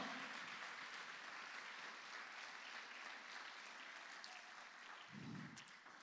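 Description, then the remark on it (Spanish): An audience claps steadily for several seconds in praise of the Lord during a sermon, a dense, sustained wash of applause, with a brief low thump near the end. “Vamos, déselo fuerte al Rey de la Gloria. Vamos, déselo fuerte al Señor.”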